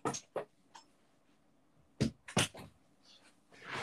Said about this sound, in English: My dog yeah. is barking.